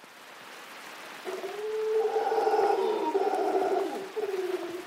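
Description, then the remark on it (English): Deep, droning howls from a troop of golden-mantled howler monkeys calling to each other in the treetops of the cloud forest in Rincon de la Vieja National Park, northwest Costa Rica, swell and overlap in long roaring waves, loud, over a steady hiss of falling rain; no one speaks. “In the treetops, a troop of golden mantled howling monkeys calls to each other across the cloud forest.”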